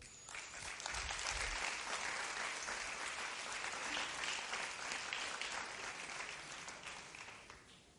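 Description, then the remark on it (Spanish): Sustained audience applause at a stage hypnosis show, as a volunteer comes up on stage: a dense crackle of many hands clapping steadily for about eight seconds, holding loud before tapering off slightly at the end, with no voices over it. “Un aplauso a por favor.”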